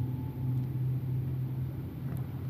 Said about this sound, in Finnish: Kaukaisuudesta kuuluu lähestyvän junan kolina.